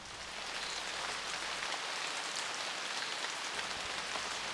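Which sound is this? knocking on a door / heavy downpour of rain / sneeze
heavy downpour of rain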